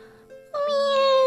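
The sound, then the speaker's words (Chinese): A little cat in a corner meows: a faint, soft tone briefly, then a loud, drawn-out single meow held at a steady, fairly high pitch, with no talking. “喵，在那个角落里有一只小猫，它大声的说：“妈妈，早上好，我我再也不哭了。”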